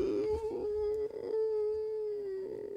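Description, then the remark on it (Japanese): A voice imitates a stray cat's yowl: one long, steady wailing cry held for nearly three seconds at a fairly high pitch, moderately loud, with no speech. “なんか野良猫があの窓の外に来てる、野良猫来てるじゃないですか”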